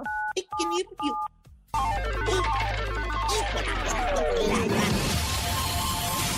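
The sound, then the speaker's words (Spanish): Three quick phone keypad tones beep in succession, clear, as the number 977 is dialed on a caller's phone in Mexico City, followed immediately by a loud, chaotic burst of jingle-like music and noise. “Oye, entonces presiona en tu teléfono el 977.”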